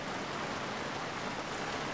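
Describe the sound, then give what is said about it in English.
Heavy rain pours down at a train station at night in a steady, dense hiss, fairly loud, with no pauses or distinct drops standing out. No one speaks. “It's pouring rain.”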